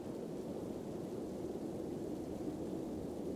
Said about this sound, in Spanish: Eso que escucharon probablemente se debió al viento provocado por la tormenta que azota en este momento.